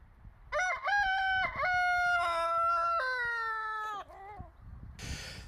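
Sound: rooster crowing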